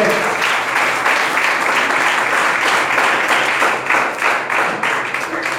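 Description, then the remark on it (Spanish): Loud, sustained applause from a crowd applauding the Lord in the evening, many hands clapping in a dense, continuous wash that holds steady for several seconds, with faint voices mixed in. “¿Por qué no un aplauso al Señor, por favor, en esta noche?”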